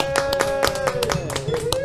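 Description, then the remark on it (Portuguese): A quick, steady burst of clapping, sharp claps landing in an even rhythm, with a sustained tonal note humming underneath throughout. “uma salva de palmas”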